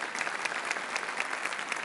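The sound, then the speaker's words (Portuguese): Audience applause for a pastor's wife as she stands, the couple married 21 years: a steady, dense wash of many hands clapping, bright and crackly, holding at an even level for a couple of seconds with no voices standing out. “Estamos casados há 21 anos. Aplausos”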